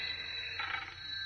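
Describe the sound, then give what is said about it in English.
A telephone rings faintly with a steady, high-pitched tone that holds throughout, swelling slightly partway through, with no voices over it. “That's my phone.”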